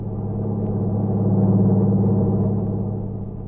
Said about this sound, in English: Then he saw the lights of a truck approaching. It passed him at high speed.